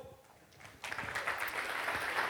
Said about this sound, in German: Lassen wir mit einem herzlichen Applaus den Jonas hier begrüßen.